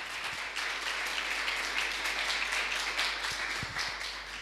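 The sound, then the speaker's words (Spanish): Steady applause from a crowd for the people watching from the other side of the screen, a dense wash of many hands clapping at once, holding an even, fairly loud level for several seconds with no voices over it. “Y todos los que estamos presentes aquí, les damos un fuerte aplauso a todas esas personas que están del otro lado de la pantalla o que están recibiendo estos podcasts.”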